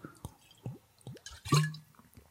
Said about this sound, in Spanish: Y para los ciudadanos de Apia, pues voy a echar un trago dramático de Vichy. Desde que viví en Estonia, me aficioné al agua así como burbujas.